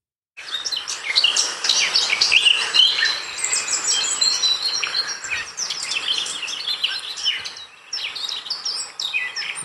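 blackcap singing

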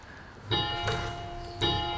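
church bells ringing

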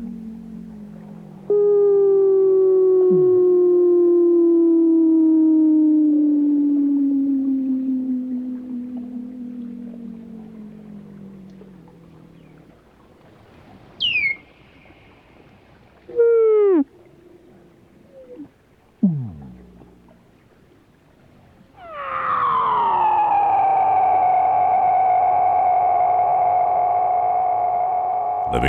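weddell seal underwater calls

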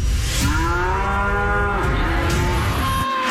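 cow mooing

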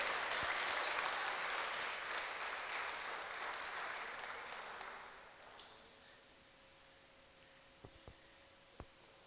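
audience applauding

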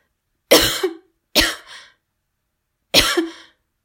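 woman coughing

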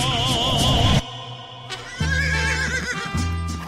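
horse neighing

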